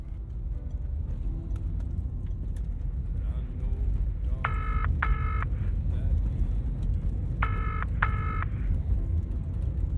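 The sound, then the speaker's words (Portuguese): Steady street traffic rumbles loudly throughout, with a car horn honking twice in quick pairs partway through. “Desculpe, estou na rua, está muito barulho.”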